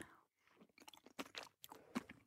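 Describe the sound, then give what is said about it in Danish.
Biting and chewing of a soft brunsviger (Danish brown-sugar cake) made in a microwave, a series of moist, squishy mouth sounds and small crunches in an irregular rhythm, with no talking. “Og jeg kan jo lige tage en bid og sige,”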